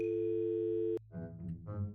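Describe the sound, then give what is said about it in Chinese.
A public payphone dial tone hums steadily for about a second, then cuts off abruptly with a click, followed by a voice murmuring softly. “啊，对了，公共电话。哎，这怎么用？是先投硬币吗？有了。”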